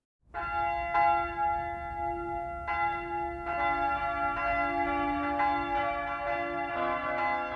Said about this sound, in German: Es ist ein Samstagmorgen in der Würzburger Innenstadt. Der mächtige Dom mit seinen zwei markanten Türmen läutet.